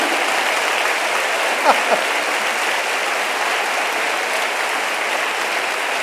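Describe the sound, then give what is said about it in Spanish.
An audience applauds God steadily, a dense, even wash of many hands clapping for several seconds, with a couple of brief voices or whoops rising faintly above it. “Ah, y, nosotros no le vamos a aplaudir al que tiene todo el mérito de haber hecho toda la creación en la que nos regocijamos.”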